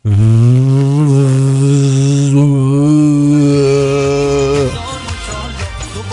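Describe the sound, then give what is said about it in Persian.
In a room at home, a voice imitates a vacuum cleaner with a loud, steady, buzzing drone from the mouth. It holds a low, even pitch for about four and a half seconds, then cuts off into brief faint noises. “واسه اینکه بابام فکر نکنه تو خونه نون مفت میخورم میرم تو اتاق با دهنم صدای جارو برقی در میارم”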